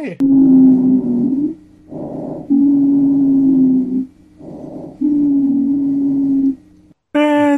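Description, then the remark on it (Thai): Wheezing lung sounds: a steady, whistling musical tone runs through three long breaths, each separated by shorter, rougher breathy intakes, fairly loud. “เสียงวีดนะทุกคน”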